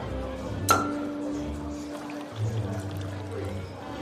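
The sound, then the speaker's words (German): A single bright clink of glass against glass rings out near the start, then fades into a low, steady background hum with faint rustling, as if a drink is being poured. “Machen Sie das Glas doch einfach gleich voller, dann ersparen wir uns beide Arbeit.”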